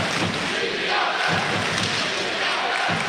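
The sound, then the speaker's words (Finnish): A large arena crowd at an ice hockey game chants goalie Matija Pintarič's nickname "Pinta" loudly in unison, a dense roar of many voices that carries steadily through the whole moment with no one speaking over it. “Otavatko yleisössä sitten Matia Pintaritsin lempinimeen Pinta? että taitaa olla.”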